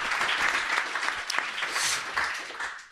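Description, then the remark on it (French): A crowd applauds steadily, a dense wash of many hands clapping at an even level for a few seconds before it starts to thin out at the end. “On peut applaudir Daz.”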